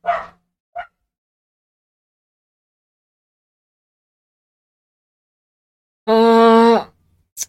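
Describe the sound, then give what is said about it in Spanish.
A dog gives a couple of short, sharp barks, then after a long quiet stretch lets out one drawn-out, howling bark, loud with no talking. “Vamos a esperar que termine de ladrar el perro.”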